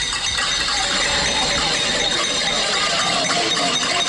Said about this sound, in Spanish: Ministra, oigo ese cacerolazo en el centro de Bogotá y me lleva inmediatamente a lo que uno escucha en Venezuela, a lo que se ha escuchado en otras protestas